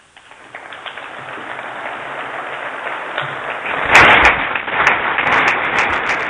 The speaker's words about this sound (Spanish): Pues con estas palabras en las que se ha prácticamente citado toda la hermandades de Jaén, arranca el primer aplauso.